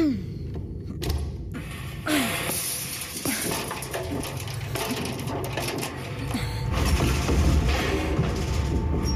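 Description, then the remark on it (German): A metal grate of a ventilation shaft clatters loose, followed by continuous scraping, thumping and rustling as someone climbs and crawls into the shaft, with sharp knocks scattered throughout. “Und nun entferne das Gitter des Schachtes und klettere hinein.”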